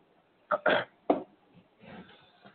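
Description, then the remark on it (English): Three sharp coughs burst out in quick succession, then a softer, rougher stretch of throat clearing trails after them. No one speaks. “I'm about to cough real bad.”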